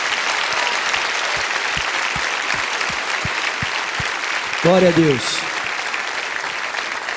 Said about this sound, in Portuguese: Então, enquanto vocês saem, a igreja vai aplaudir vocês mais uma vez, por favor. Vamos lá, gente? Vamos aplaudir forte, por favor. Vamos aplaudir forte, irmãos.